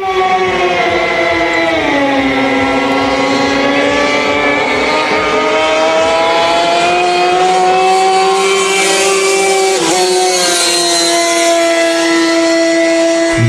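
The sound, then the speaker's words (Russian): The high-revving outboard motor of a class O-500 racing boat drones loudly and continuously, its pitch dipping and rising as it throttles, with a brief sharp dip near the end. No voices. “Это лодка с подвесным мотором класс О-500.”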